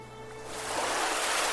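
Ocean waves at the seaside in Gangwon Province, South Korea: a broad hissing wash of surf that swells up after a quieter start and stays steady, with a faint low hum underneath and no voices.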